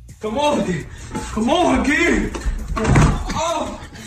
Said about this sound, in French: T'as entendu, vous avez entendu le gros boum, bah, c'est un gamin de 3 ans hein, qui se prend un mur plein de tête parce que son père lui a bandé les yeux pour déconner.